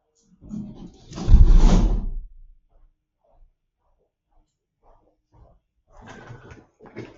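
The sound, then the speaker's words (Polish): A window is shut with a rough sliding scrape and a dull thud that peaks around the second second, followed by quiet with a few small clicks, then faint voices or movement near the end. “daj mi dosłownie sekundę, ja wezmę tylko, zamknę okno, bo ktoś mi kosi na dole i słabo Cię słyszę, dobra?”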